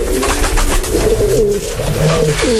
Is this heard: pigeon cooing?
yes